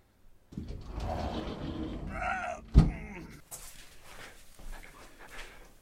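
A heavy door creaks as it swings, then shuts with one loud, close thud, followed by quieter scraping and rattling like a bolt or lock being worked.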